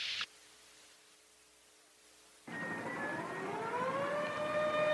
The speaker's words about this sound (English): I'm speaking to you from the roof of the John Hancock Center in Chicago, Illinois. The noise you hear is the air raid sirens, warning the people to evacuate the city as Martians approach.